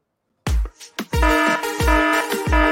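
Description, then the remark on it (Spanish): After a moment of silence, a loud electronic alarm rings with a steady, piercing tone, punctuated by heavy rhythmic thumps underneath, with no voices. “Suena duro esa alarma.”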